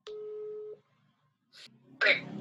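A steady electronic telephone tone hums for under a second as a call is dialed, followed by a brief pause, a short breathy hiss, then a voice starting to speak.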